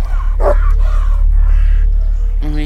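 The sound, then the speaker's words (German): A dog barks in a couple of short, sharp bursts, one near the start and another at the end, over a steady low background hum with no talking. “Hunde, die bellen, beissen”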